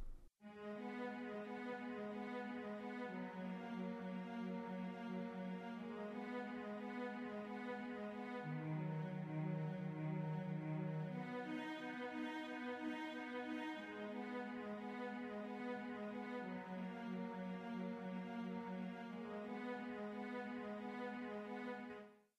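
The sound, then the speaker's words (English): A solo cello plays long, sustained bowed notes, moving back and forth between the first and second notes of a chord's triad every few seconds, playing through the first chord progression, with a brief deeper dip midway, steady with no voices. “and again, that's just playing through the first chord progression, and that's just the cello.”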